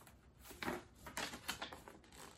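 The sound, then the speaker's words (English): Crisp, crinkling paper rustles in several quick bursts, fairly loud, as a folded paper map of a park, taken from inside a book, is opened out, with no voices. “I can open the paper that was in the book and see what it is.”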